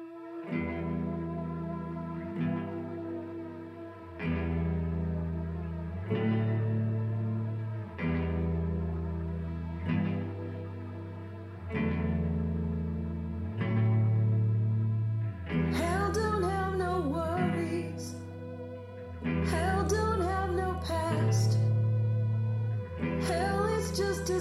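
A rock song plays with heavy, effects-laden guitar chords over a steady pulsing bass. About halfway through it grows louder and brighter, with crashing cymbals. No singing is heard.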